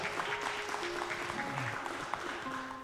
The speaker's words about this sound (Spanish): ¿Cuántos dicen amén a eso? Amén, denle un aplauso al Señor si se lo va a dar.